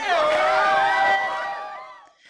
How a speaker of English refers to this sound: I want to give everyone a big ballroom applause just for your progress for today.